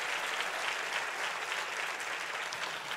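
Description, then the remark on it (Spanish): A crowd of more than 100 people claps steadily for a few seconds for the glory of God, a dense, even wash of many hands applauding together with no voices standing out above it. “Y si tú puedes reconocer eso, hazlo con un fuerte aplauso para la gloria de Dios.”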